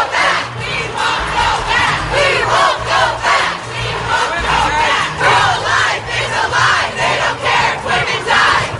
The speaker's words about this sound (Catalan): I milers de persones han protestat pels carrers de Washington contra la sentència del Tribunal Suprem dels Estats Units que ha fet que l'avortament deixi de ser legal arreu del país.